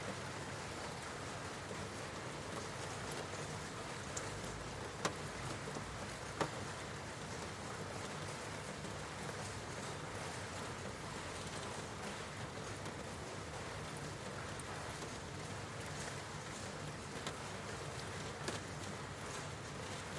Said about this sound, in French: Une part de vous entend toujours ma voix, mais reste en même temps focalisée sur cette pluie qui tombe.